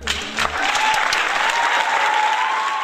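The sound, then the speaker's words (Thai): A steady burst of applause, many hands clapping together in a dense, continuous patter, lasting a few seconds with no one speaking over it. “ต้องขอปรบมือให้เลยทีเดียวเชียวนะคะ”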